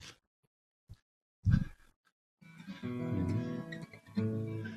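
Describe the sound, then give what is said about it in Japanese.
A couple of soft knocks and handling thumps, then a guitar rings out a sustained reference tuning note, struck again near the end, moderately loud with no talking. “これが基準の音ですかね。”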